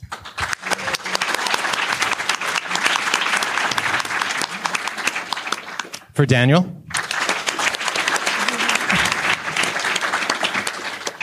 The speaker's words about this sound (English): All right. Uh, a round of applause for